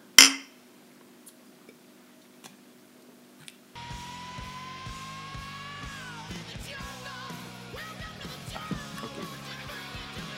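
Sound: glasses clinking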